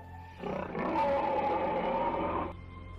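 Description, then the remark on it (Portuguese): A Triceratops lets out a loud, rasping grunt-roar lasting about two seconds, rising then fading, over a steady low rumble of other unseen animals around it. No one speaks. “o Triceratops começa a grunhir e vocês ouvem sons de outros animais ao redor, só que vocês não os veem.”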